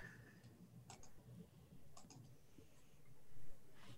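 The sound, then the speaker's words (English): Dice, including a D20, clatter for a security roll in a tabletop role-playing game, in a few short bursts of light, hard clicks, fairly quiet, separated by brief pauses over a low background hum with no talking. “So I get another dice here.”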